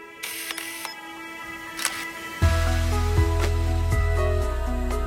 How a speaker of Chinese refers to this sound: 一抹绿光溜到山坡边缘，我赶紧调脚架方向，冻僵的手狂按快门，记录极光的出现。